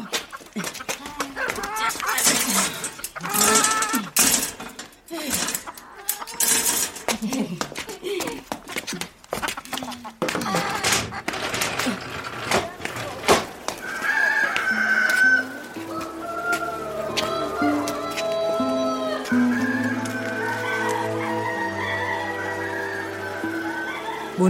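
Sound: rooster crowing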